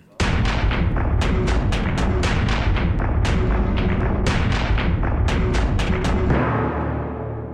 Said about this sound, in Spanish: Veo cómo saltan las astillas de la puerta por todas partes